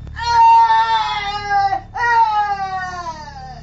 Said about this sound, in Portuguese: Quando por fim conseguem botar a porta no chão, ouvem vindo lá de dentro um angustiado grito de dor.